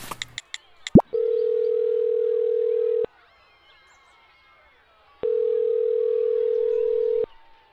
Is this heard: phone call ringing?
yes